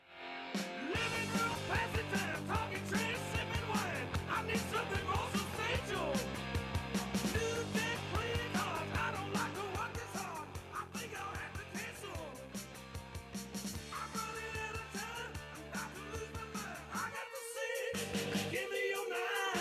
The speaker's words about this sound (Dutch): dit nummer is ook ontzettend goed. Het is snel, het is een soort … achternummer nummer.